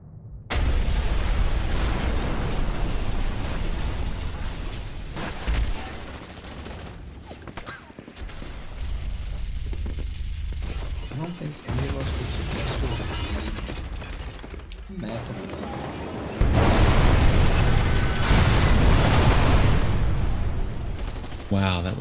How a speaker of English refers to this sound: Right as he does so, uh, there was a giant explosion. Shit hits the fan, and that's where we are.